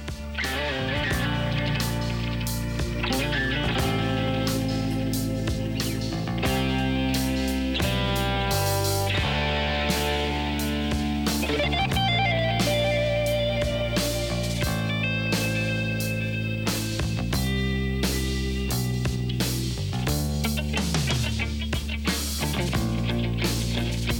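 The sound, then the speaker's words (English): A loud, dense rock track in which a snare drum cracks repeatedly, its hits trailing off into delayed echoes over heavy guitars and bass; no one speaks. “and hear that delay and echo on, on the snare there.”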